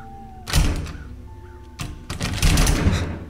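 A closed house door is pushed and rattles loosely in the gap of its frame, two bursts of clattering knocks, the second longer and more insistent, with no voices.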